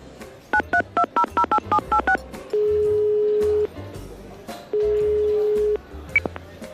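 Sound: telephone being dialed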